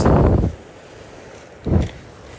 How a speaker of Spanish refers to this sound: No esperes un mar tranquilo porque el de hoy no lo es. Es un mar impetuoso, rompiendo contra los cantos rodados